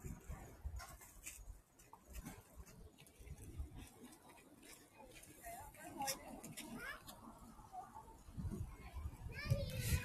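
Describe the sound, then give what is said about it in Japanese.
Children play and chatter right in front of a person on a swing, their voices rising and falling continuously through the whole stretch in a lively outdoor bustle, with occasional faint bird calls in the background. “ちょうど子供がやってきた。”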